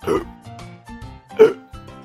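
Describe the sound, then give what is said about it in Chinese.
A string of about five voiced hiccups from Peppa after drinking a big cup of juice too fast, short and abrupt with a brief tonal squeak to each, coming in an uneven rhythm. One in the middle is noticeably louder, and no one speaks. “可是，佩奇果汁喝得太快，现在他也开始打嗝了。”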